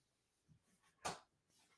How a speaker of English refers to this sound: So why my dog's trying to come in.